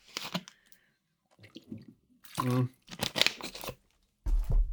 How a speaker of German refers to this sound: So, nach einem Schluck Wasser kurz